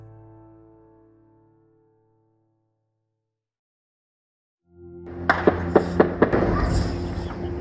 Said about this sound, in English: Over the weekend, gunfire was heard outside a hotel in a central district of Somalia's capital, Mogadishu. Inside the hotel, forces from Al Shabaab a jihadist group affiliated to Al Qaeda, had laid siege.